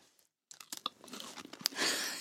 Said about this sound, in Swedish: jag tuggar för fullt.